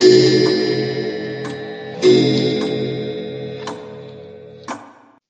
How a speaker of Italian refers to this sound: Avete udito anche voi i rintocchi dell'orologio?